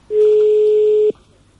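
A single loud, steady telephone dialing tone holds for about a second as a call is placed, then cuts off abruptly, leaving only faint background hiss. No one speaks.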